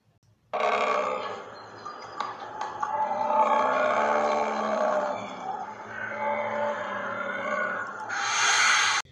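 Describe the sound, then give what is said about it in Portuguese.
A bear growls and roars in one long, loud stretch, a rough guttural rumble that swells and eases for several seconds before ending in a harsher, breathier burst. “Dois amigos caminhavam por um bosque quando, de repente, aparece um urso e começa a persegui-los.”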